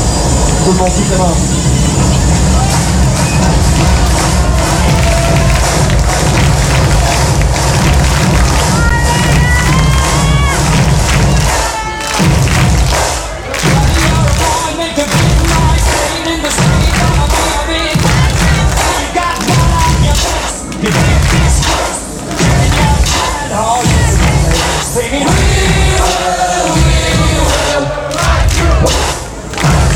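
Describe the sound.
A large crowd stomps and claps in a steady, repeating rock rhythm, loud, with cheering and shouting voices throughout.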